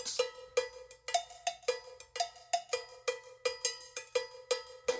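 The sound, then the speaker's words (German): A spoon bangs on metal cooking pots at the stove during cooking, in a steady, fast rhythm, with loud ringing clangs repeating about three times a second, with no voices. “Und beim Kochen wird es laut, wenn Paul mit dem Löffel auf die Töpfe haut.”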